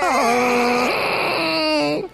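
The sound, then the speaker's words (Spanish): A voice imitates Chewbacca's anguished Wookiee roar: one loud, sustained, strained wail of about two seconds, with a throaty, rough tone whose pitch dips low and then rises before breaking off. “Entonces, cuando veo que Grita se muere, como si fuese Chubaca.”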